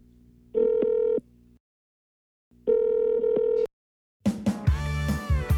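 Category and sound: signal or alarm, phone line ringing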